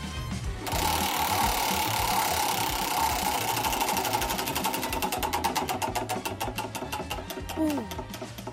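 A prize wheel covered in notes on the Swedish radio station Mix Megapol spins with a rapid, loud stream of ratcheting clicks that gradually spread out and slow as the wheel winds down, over a low background bed.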